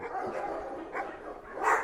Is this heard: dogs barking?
yes